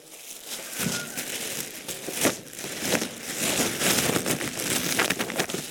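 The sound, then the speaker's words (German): Plastic rain poncho crinkling and rustling as it is pulled on, a steady stream of crackly, papery crinkles with brief louder rustles, no voices. “Wir müssen, noch, wir müssen da hier noch so eine Regenpellerine anlegen, gell?”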